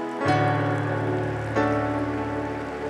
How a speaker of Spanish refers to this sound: Vamos, dale fuerte aplauso a Jesús.